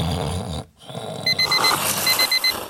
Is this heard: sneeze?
no